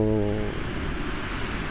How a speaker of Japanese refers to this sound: 今、目の前にまさに海が広がっていて、相模湾なんですが、波の音がだいぶ入ってると思うんですけどまさに海辺にいましてそこからお届けしています